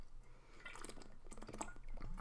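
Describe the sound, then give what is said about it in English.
A quiet sip of water with soft wet mouth sounds and a faint swallow, with no talking over it. “I need hydration, water.”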